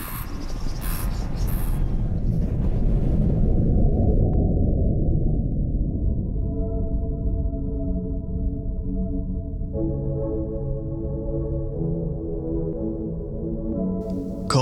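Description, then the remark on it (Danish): A loud, deafening, continuous din from many mink on a mink farm on a private island in southern Funen, Denmark. It is a dense wall of overlapping chatter and squeals with high, sustained whining tones running steadily through it. “Lyden af mink er øredøvende, så det er svært at tænke i larmen.”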